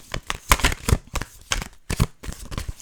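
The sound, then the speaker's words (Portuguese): Stiff, hard-to-shuffle playing cards being shuffled, a rapid series of sharp, crisp riffling bursts and slaps spread unevenly over a few seconds, with no voices. “Estas cartas ainda estão um bocado duras, é difícil de baralhar.”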